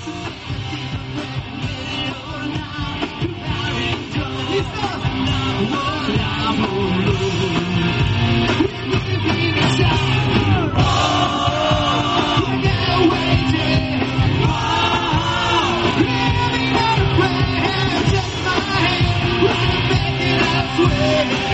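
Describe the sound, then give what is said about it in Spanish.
A loud live rock band with a singer plays a cover song at Bonaire, with full, dense guitars and drums, while a crowd yells and shouts along throughout, growing louder about halfway in. “vamos a escuchar un poquito, un trocito de, de … de … que tenéis por ahí en algún directo”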